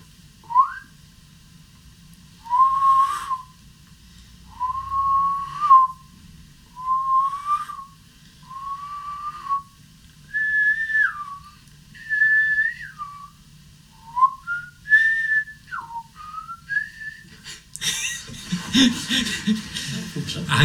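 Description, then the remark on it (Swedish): A person whistles to their pet, a series of short, gentle notes, some rising and some dipping, repeated steadily for about seventeen seconds before a brief burst of rustling noise at the end. “Jag, jag visslar till honom lite grann så här.”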